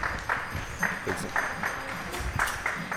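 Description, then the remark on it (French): A crowd applauds the speaker on his first evening back in Lyon, the clapping forming a continuous, moderately loud patter with brief swells, while voices murmur underneath. “Ouais, ouais, je, je suis vraiment touché là m'applaudissent m'applaudisse comme ça.”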